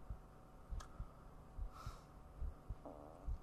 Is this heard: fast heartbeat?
yes